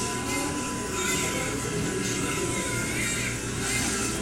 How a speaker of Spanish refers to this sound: Ahora tú escuchas las ondas del carrito las cajas registradoras, el aire acondicionado. Pero, ¿qué pasaría si añadimos todos los sonidos que faltan? Como un bebé llorando, o los refrigeradores, la promoción del libro y la música de los pasillos.